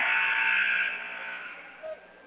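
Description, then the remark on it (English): A basketball arena buzzer at a Massena game blares in one loud, harsh, sustained burst for about a second, then fades into a murmur of crowd noise, with a brief faint blip near the end. “well, there's the buzzer.”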